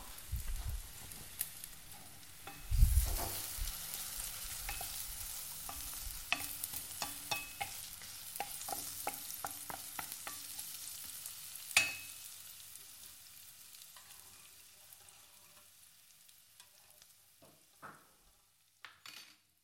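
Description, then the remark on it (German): Vegetables, including thinly sliced carrots, sizzle steadily in a pan while a utensil scrapes and stirs them, with irregular clicks and knocks against the pan; the sizzling fades somewhat toward the end. No one speaks. “Das Gemüse brät”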